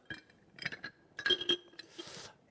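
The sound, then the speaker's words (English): Several rocks clink and clatter into a glass jar in quick, irregular bursts, with bright ringing tones and a final rattling shuffle, fairly loud, no voices. “And I'm going to see if I can do this without breaking my glass jar which I might not be able to.”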